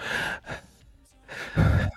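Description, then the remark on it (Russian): A voice imitates heavy breathing into the microphone, like a cartoon character who constantly breathed this way: two airy exhales, a brief pause, then a deeper, louder rasping breath, with no words spoken. “Знаешь, это как в этом, как в мультике Арнольд был чел, который постоянно типа дышал так.”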